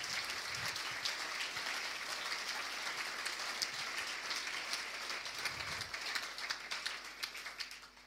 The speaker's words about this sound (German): Lasst uns mal Jesus einen Applaus geben, weil ich bin sicher, er hat gewirkt.